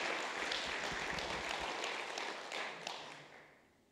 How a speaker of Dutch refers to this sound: Ja, zullen we God nog een applaus geven?